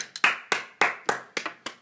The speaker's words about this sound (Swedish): Det är jag själv som applåderar till dig